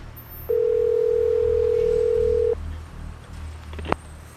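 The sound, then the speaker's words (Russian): A telephone tone sounds, one steady, clear electronic beep lasting about two seconds, followed by quiet low hum and a brief sharp click near the end. “Следователь вздохнул, закурил и достал телефон.”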